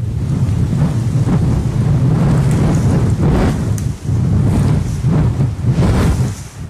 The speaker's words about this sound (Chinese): 我喜欢听风吹过的声音。